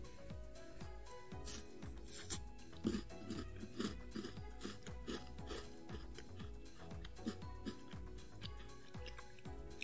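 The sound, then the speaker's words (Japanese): Crisp crunching and chewing of a Tim Tam chocolate biscuit, one from a bag of nine, being taste-tested, with repeated bites and mastication sounds in an uneven rhythm, no talking. “ではですね、えー、これはですね、9個、1つのね、え袋の中に入ってますけども、えそれでは1個食べてみたいと思います。”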